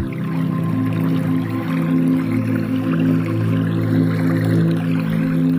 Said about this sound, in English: Now I know what y'all some of y'all are thinking. Why would I have that water running while I'm doing a self-help commercial?